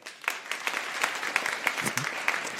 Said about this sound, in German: Euer Applaus.